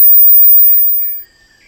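A tiny wooden whistle, being blown like a dog whistle, gives a faint, thin, high-pitched hissing tone that wavers slightly, holds steady for about a second, then fades away into near silence. No one speaks.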